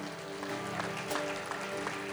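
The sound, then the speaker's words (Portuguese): A crowd gives a round of applause to Jesus, clapping steadily for a couple of seconds in a dense, even patter of many hands, with a faint sustained musical tone running underneath. “Essa era a hora que você tinha que dar uma salva de palmas a Jesus.”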